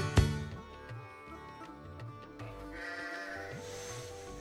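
Sheep bleat repeatedly in wavering, nasal cries, one loud bleat at the start followed by several overlapping calls from a small flock, with no talking.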